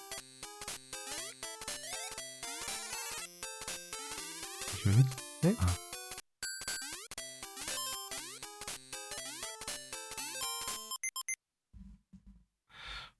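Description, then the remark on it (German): Bright 8-bit Game Boy jump'n'run platformer game sounds: a steady stream of beeping chiptune music and quick blippy coin-collecting chimes for about eleven seconds, with brief murmurs midway and short spoken remarks after it stops. “Das ist auf jeden Fall ein Jump'n'Run und da wurden, wurden glaube ich, auch Münzen eingesammelt.”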